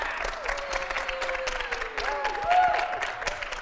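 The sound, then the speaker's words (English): A class audience gives a round of applause for a debate. A dense, even patter of many hands claps steadily for a few seconds at a fairly constant loudness, with a brief cheer or whoop rising over it near the end. “Um, we Can are we have com- a round of applause yes, for our debate.”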